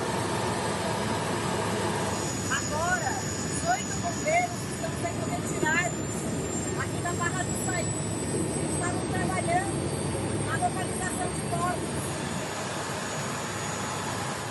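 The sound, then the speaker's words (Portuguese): A helicopter used to send health and rescue teams where roads are partially blocked drones steadily and loudly throughout, a dense rumbling roar with a thin high whine on top, while faint, muffled voices come and go underneath. “Com as estradas parcialmente bloqueadas, o helicóptero vira o principal meio de locomoção para enviar equipes de saúde e de salvamento.”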